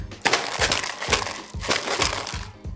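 A maraca shaken in a steady rhythm, around half a dozen bright, gritty rattling bursts, each a dry hiss of loose beads with a soft thump underneath, fairly loud and with no talking.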